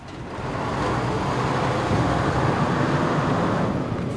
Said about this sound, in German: Die Lastwagen machen sich auf an die Grenze nach Rafah.